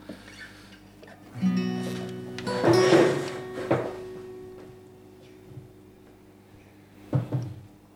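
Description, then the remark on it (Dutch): The low electric hum of refrigerators runs steadily throughout, swelling for a few seconds, with a few clunks and rattles like doors or shelves being handled. No one speaks. “Dan genieten wij ondertussen van het geluid van die schitterende koelkasten van Patrick.”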